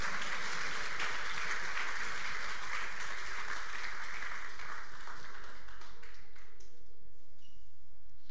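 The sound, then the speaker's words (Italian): A crowd applauds Jesus with dense, steady clapping for about six seconds, then the clapping thins and fades out near the end. No one speaks over it. “Di solito si dice fate un applauso a Gesù, eh? vabbè, l'avete fatto.”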